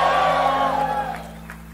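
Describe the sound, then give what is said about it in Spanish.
An audience shouts together in praise, a loud, dense wall of overlapping voices and whoops that holds steady, then slowly fades over a couple of seconds. “Demos un grito de alabanza al que vive.”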